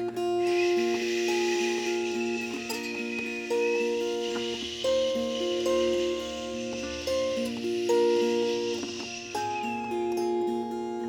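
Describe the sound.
A long, steady shushing 'chut' hiss held for several seconds, even, with soft sustained musical tones playing underneath.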